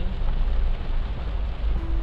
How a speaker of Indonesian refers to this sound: hujannya semakin lebat kayaknya suara saya bakal kalah kencang sama hujan yang lumayan kencang